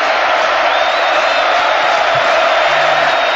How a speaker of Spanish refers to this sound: Este, el momento de la ovación a Charlie. Tremendo. No paraba. River.